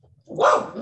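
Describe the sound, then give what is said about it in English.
A single loud bark from a dog outdoors in Houston, rising sharply and tailing off over a moment with no talking over it. “that's my dog, y'all, because I'm outside.”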